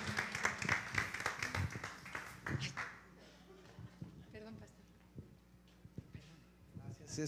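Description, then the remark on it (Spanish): An audience at a church service applauds loudly for about three seconds in praise of Almighty God, then the clapping thins to a few scattered claps while a voice talks over the quieter room. “Le damos un aplauso al Dios Todopoderoso, a quien servimos, Dios de milagros, que liberten en el ahora, en el nombre de Jesús.”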